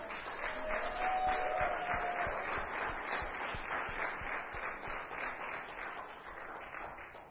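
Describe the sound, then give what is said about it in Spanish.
An audience applauds for all the fathers, steadily, many hands clapping in a dense, continuous patter that holds for several seconds before gradually thinning, with a brief high whistle-like tone early on. “Un aplauso para todos los papás.”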